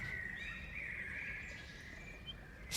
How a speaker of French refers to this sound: Il y a les oiseaux et, tout, juste derrière, écoutez bien. Il y a la petite, euh, la petite rivière.